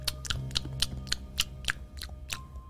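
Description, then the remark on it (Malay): Wet mouth smacking from someone chewing food, a quick irregular series of sharp lip clicks and squelches, moderately loud over a low steady hum, heard from outside a toilet. “bunyi terdengar bunyi ni kan kita kat dalam toilet kan, dalam tandas lepas tu dekat luar ni kita terdengar bunyi seolah-olah macam ada orang mengunyah”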